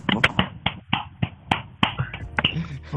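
hand clapping applause

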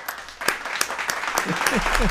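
round of applause

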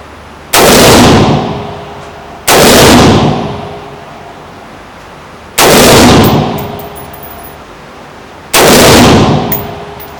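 gunshots

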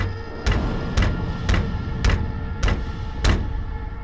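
door noise

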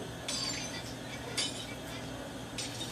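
glass breaking and shattering

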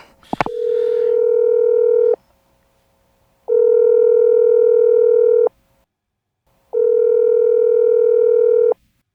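telephone ringing tone

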